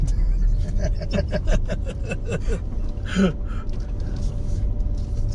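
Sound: car driving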